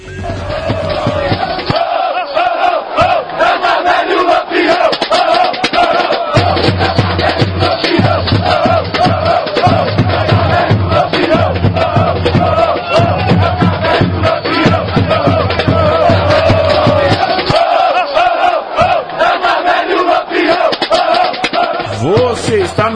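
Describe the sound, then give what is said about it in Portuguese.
Vitória football supporters' groups TUI and TJS chant together in a chant of their friendship, a loud, sustained crowd roar, many voices shouting in rhythmic unison with steady low drumming running underneath throughout. “E agora a gente vai ver um grito também, né, dessa... A amizade né, entre a, a, TUI e a TJS, que é o Caverna e o Lampião, né, que são é.”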